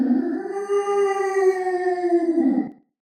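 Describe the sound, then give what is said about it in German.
A monstrous flesh golem scream: one long, loud, droning howl at a steady mid pitch, held for nearly three seconds before it breaks off, with no other sounds around it. “Der Golem schreit”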